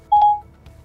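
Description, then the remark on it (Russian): A short electronic tone from a phone app, triggered by voice command, opens a barrier gate at an underground parking entrance: a single steady beep lasting about a third of a second, followed by a faint click; no one speaks. “Это Siri, э, Apple, плюс э, шорткаты приложения Apple и плюс внешнее приложение для открытия шлагбаума. Привет, Siri. Открой конюшню.”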